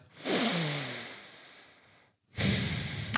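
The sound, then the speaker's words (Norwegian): Heavy, forceful nasal breathing from someone showing how they breathe at near-maximum heart rate: one long, rushing breath lasting nearly two seconds, a brief pause, then another loud breath starting, with no talking. “Eh, nå, hvis jeg da ligger helt oppunder makspuls, så puster jeg sånn her.”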